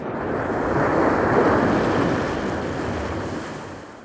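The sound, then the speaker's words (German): A plane ditches onto moonlit water: a broad roaring rush of water and surf swells to a peak, then slowly ebbs away, loud, with no voices. “Dann setzte die Maschine auf dem Wasser auf.”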